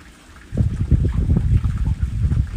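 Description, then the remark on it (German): River water flows steadily, a dense low rushing and burbling that swells in after a quiet half-second and keeps churning without a break. “Lass ihn mit diesem Fluss weiterfließen.”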